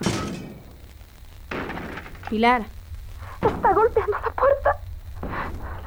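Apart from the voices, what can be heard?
banging on a door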